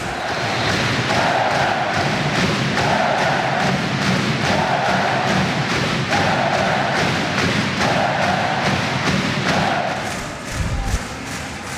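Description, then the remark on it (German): A packed handball arena crowd chants and cheers after the match, a 26–25 win over THW Kiel, while stomping in a steady, rhythmic beat, the thuds repeating evenly throughout, loud with a broad roar of voices. “Erstmal noch ein bisschen die Atmosphäre genießen hier nach dem Spiel, denn die Löwen haben es tatsächlich geschafft, besiegen den THW Kiel mit 26 zu 25 nach einem packenden Spiel.”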